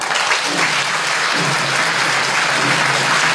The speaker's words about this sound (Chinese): 同学们，拿出你的尖叫与掌声，让我们欢迎三马首句。